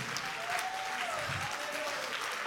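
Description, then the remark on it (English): A church audience claps together at the preacher's call, a dense, steady wash of applause that fills the whole clip, with a faint sustained tone gliding underneath and no distinct voices. “Somebody clap your hands with me.”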